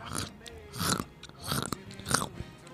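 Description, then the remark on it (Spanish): Someone chews crunchy potato chips, as in an ASMR video: four loud, crackly bursts land at a steady, unhurried rhythm, with softer munching in between and no talking. “Por ejemplo, alguien que agarra unas papitas y las músicas está.”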